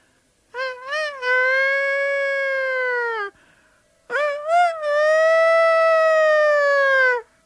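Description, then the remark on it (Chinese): A human voice, pinched, mimics a rooster crowing twice, each call opening with a couple of quick wavering notes before a long, loud, sustained high tone that slowly drops at the end. “学了几声鸡叫。”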